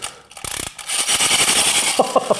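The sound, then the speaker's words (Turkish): A clockwork mechanism is wound up with a rapid, steady series of dry ratcheting clicks, fairly loud and bright, ending with a few slower, heavier clacks. “Kur, kur, kur bakalım.”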